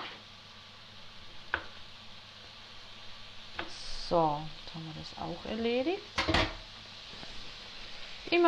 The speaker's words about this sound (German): wieder dazwischen umrühren, dass da nichts anbrennt. Ich habe zwar eine beschichtete Pfanne, aber umrühren ist trotzdem wichtig, dass alles gleichmäßig durch ist.